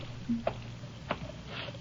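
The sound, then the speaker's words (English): Water runs steadily from a tap at a service station about a mile out on the highway near Santa Rita, with a soft, even hiss while a man's hands splash and rub under it, giving a couple of brief wet slaps. Fairly faint, with no talking. “turn off that water and dry off your hands.”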